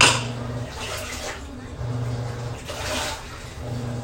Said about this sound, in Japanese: ちょっと洗濯機も回してるんでねちょっとうるさいですけれど